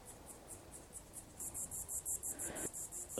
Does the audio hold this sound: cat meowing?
no